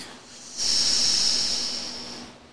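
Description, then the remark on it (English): Beer from a Mind Haze summer pack pours into a glass with a steady, fizzy hiss that starts abruptly, holds for about two seconds, then tapers off slightly. No one speaks. “While we're pouring these up, I guess we can jump in real quick to a little question.”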